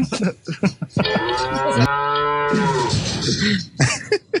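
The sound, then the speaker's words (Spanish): A cow lets out one long, loud, drawn-out moo lasting a couple of seconds, framed by short bursts of livestock noise and rustling just before and after. “Dejen a la vaca.”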